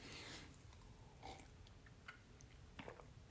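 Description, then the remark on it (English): Quiet mouth noises of someone sipping a cup of coffee, a few soft slurps spaced out over a few seconds, with faint background hiss and no talking. “just sitting here sipping on a cup of coffee”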